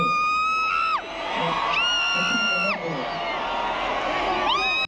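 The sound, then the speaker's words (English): A loud concert crowd, recorded on a phone, cheers and screams, with sustained high-pitched shrieks that swoop up and down in pitch over a dense roar of voices, continuous for about five seconds. “everyone so in the crowd just heard the word … and, and they went”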